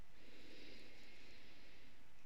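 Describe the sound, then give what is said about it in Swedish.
A long, steady inhale through the nose during a yoga nidra breathing exercise, a soft airy hiss lasting a couple of seconds, fairly quiet, with no talking over it. “Så för att avsluta den här yoga nidra så andas in genom näsan och sucka ut genom munnen.”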